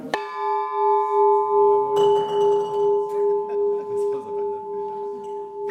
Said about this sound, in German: Damit die 85 Kilogramm schwere Walburg-Glocke wieder so schön und hell erklingt, war einiges an Restaurierungsmaßnahmen nötig.